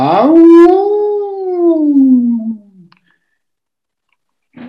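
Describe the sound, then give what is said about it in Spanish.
A person lets out one long wolf-like howl, loud, swooping up then slowly sliding down over a couple of seconds before trailing off into silence. “Dije. Aullar, cabrón.”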